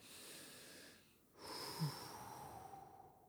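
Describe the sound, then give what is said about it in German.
A deep breath drawn in, a brief pause, then a long airy exhale with a faint whistling edge, fairly quiet, with no talking. “So, dann atmen wir wieder tief durch.”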